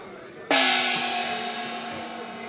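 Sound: gong being struck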